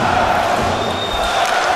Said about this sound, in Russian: по-моему, скандируют наши болельщики, требуя еще одну. 5-0 мало, вот 6-0, да, было бы, видимо, для них э, очень-очень э, хорошо.